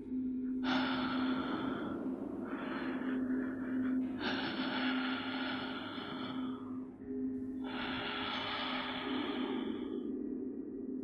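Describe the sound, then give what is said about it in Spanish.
Loud, heavy breathing of someone standing outside a house gate, with four long rasping breaths in a slow irregular rhythm over a steady low hum, and no talking. “Eran dos pies mucho más grandes que el promedio y lo que hacía más aterrador era la ruidosa respiración que se escuchaba.”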